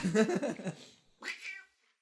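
A cat yowls twice, first a drawn-out wavering cry and then a shorter rising meow after a brief pause, moderately loud with no talking.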